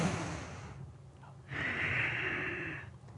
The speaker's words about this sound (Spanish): Yo cuento la respiración, respirando con el vientre.